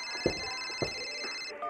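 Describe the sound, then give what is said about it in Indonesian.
A telephone rings with a steady, high electronic tone that runs for about a second and a half, broken by a couple of soft thumps, then cuts off. “saya angkat telepon dulu”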